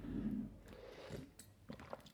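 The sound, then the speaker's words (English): Someone sips coffee, with soft wet slurping and mouth sounds over about two seconds and a couple of small clicks near the end. No one speaks. “You take a sip of coffee.”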